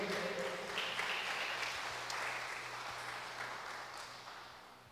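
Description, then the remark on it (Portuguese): An audience applauds the Lord steadily, a dense wash of many hands clapping at a fairly loud level that slowly tapers off, with a faint low hum and a few scattered shouts beneath. “Aplauda o Senhor.”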